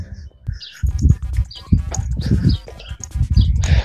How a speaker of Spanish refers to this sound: Mira, hay, pajaritos, de fondo, se oyen.